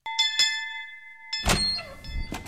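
An apartment doorbell rings with a steady, bright metallic tone for just over a second, then stops. A dull thump and rustling follow, like a door being opened.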